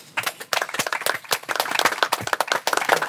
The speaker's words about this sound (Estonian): okei, aitäh teile kõigile, suur aplaus